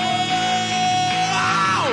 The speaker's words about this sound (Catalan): Dice vamos y al final de vamos fa un crit.